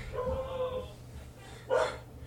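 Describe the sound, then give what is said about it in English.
A dog that is coming gives a drawn-out, whining bark followed a second later by a sharper single bark against a low background hum. “Uh oh, the dog's coming.”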